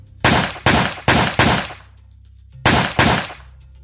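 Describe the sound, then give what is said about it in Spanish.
Six sharp, loud gunshots ring out: four fired in quick succession, a brief pause, then two more, each with a short echoing tail. No one speaks. These are the shots that killed Brazilian pastor Anderson do Carmo, husband of federal deputy Flordelis dos Santos. “De repente, disparos.”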